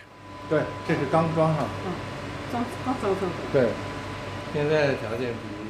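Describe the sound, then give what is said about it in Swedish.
A faint, steady electrical hum of state-of-the-art analysis equipment inside plastic casings at the Academy of Traditional Chinese Medicine in Beijing's old quarter runs continuously in the background while a person talks over it. “På akademin för traditionell kinesisk medicin i Pekings gamla kvarter brummar den toppmoderna analysutrustningen svagt inuti sina plasthöljen.”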